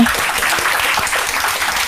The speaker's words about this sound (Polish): Wielkie brawa dla Was.